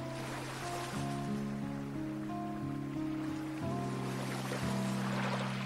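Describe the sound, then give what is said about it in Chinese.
A steady wash of ocean waves hisses beneath sustained, shifting low musical chords, the surf noise staying even throughout and swelling slightly toward the end. “在层层叠叠的浪声中，我听见你的声音，影子。”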